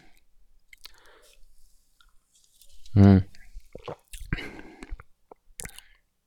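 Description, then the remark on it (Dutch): Wet chewing and soft crunching of nokko snacks in short irregular bursts, with a brief hummed sound from a person in the middle. “Als je meer nokko's neemt, ik vind ze heel lekker, de smaak ook.”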